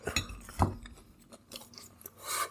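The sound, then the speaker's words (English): A crunchy bite into a hot Signature Select barbecue chicken and peppers pizza from Safeway, followed by wet, irregular chewing, with several short crackling bursts and a louder crunch near the end; no one speaks. “Maybe I'll get a little first bite action.”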